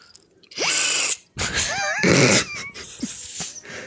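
Party blower horns, apparently broken, blown in several loud, buzzy blasts with wavering pitch, each cutting off abruptly as if gated, then tapering into quieter squeaky toots near the end.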